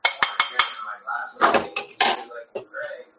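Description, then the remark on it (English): Sharp clinks of cutlery against dishes in quick succession during a late dinner, several metallic taps followed by scraping and clattering of plates and utensils, with faint vocal sounds mixed in. “it sounds delicious. I hope it's good. It, it is. It is. It's my late dinner”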